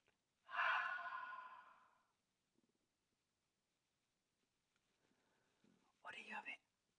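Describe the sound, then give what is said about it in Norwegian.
A long, deep breath blown out through the mouth after breathing in through the nose, breathy with a slightly voiced edge, fading over about a second and a half, followed by quieter shuffling and a brief soft sound. “Og ut gjennom munnen.”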